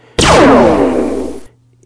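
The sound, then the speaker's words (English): A single sharp, zinging laser-gun blast made by hitting a taut steel guy wire of a giant radio tower with a hammer, recorded with a microphone against it. A bright metallic twang sweeps downward in pitch and rings out for about a second before cutting off. “the guns firing was actually a microphone put up against um, the giant radio towers.”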